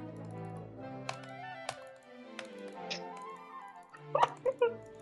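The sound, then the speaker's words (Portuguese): Computer keyboard clicking: a few sharp, separate key taps spaced about half a second apart, then a quicker, louder cluster of clicks at the end, all over a steady tonal hum. “Agora ele clica, clica, clica e não traz uma curiosidade.”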